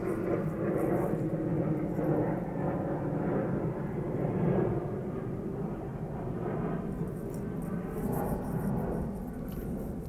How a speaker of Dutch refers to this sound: even een heel groot vliegtuig over.